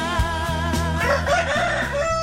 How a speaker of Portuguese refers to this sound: Olha o galo cinza aí de novo. Eita, aí. atrasou um pouquinho hoje, né?